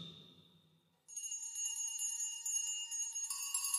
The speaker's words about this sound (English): It rang out, and then so did every bell in the house.